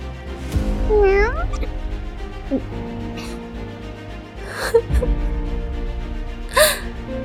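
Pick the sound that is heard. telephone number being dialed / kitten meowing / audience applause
kitten meowing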